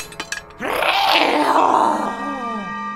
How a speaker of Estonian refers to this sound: kähises loomalik hääl, rõugutaja hääl.